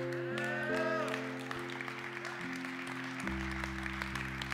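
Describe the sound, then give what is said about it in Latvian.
Thin, scattered clapping from a small number of people, steady throughout, mixed with sustained low keyboard or organ chords that shift pitch a few times. “Slavu Jēzum, ļoti šķidra aplausa, bet nu, var arī saprast.”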